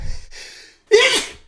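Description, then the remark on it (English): A person recovering from neck surgery sneezes: a couple of hissing, building inhales, a brief catch of silence, then one loud, explosive sneeze, bursting out and trailing off quickly. “I'm getting ready to sneeze. I'm gonna sneeze.”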